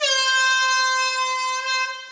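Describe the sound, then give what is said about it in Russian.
A loud, blaring vuvuzela horn, a professional high-decibel horn, holds one harsh, buzzy note steadily for about two seconds, alone, fading slightly at the end. “Оказалось, нет, это профессиональная штука, которая издает какой-то высокодецибельный звук.”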